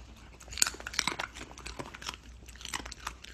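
A dog named Octave crunches on raw vegetables (carrots, celery and cucumbers), with irregular bursts of sharp, crisp chewing and biting, a quick cluster near the start and more scattered crunches after, with no voices.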